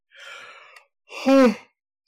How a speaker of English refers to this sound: I'm sure that yawn is coincidental.